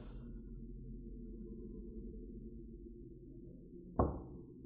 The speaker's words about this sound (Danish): Det første bank kom, netop som hun havde slukket lyset.